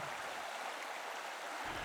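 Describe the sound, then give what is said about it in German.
River water flows steadily in a continuous, even rush with no breaks, fairly soft. No voices are heard. “Den habe ich, weil ich durch den Fluss durchwaten muss.”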